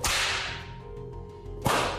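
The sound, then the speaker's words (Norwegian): Two loud whip cracks during a flogging punishment, the first followed by a long hissing, ringing tail that slowly fades, then a second sharp lash near the end. No voices are heard. “For de som kanskje ikke er kjent med det, så er denne formen for pisking mye mer brutal enn den sharia-baserte piskinga som praktiseres i enkelte andre land.”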